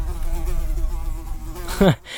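A housefly buzzes steadily for almost two seconds, its drone wavering slightly, then swoops past in a quick rising whine before fading away.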